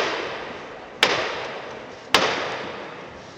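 A Holy Week procession float's knocker (llamador) strikes twice, about a second apart. Each is a sharp, ringing rap that stands out over a steady background hiss. No one speaks.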